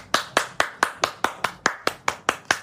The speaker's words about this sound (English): Little round of applause for that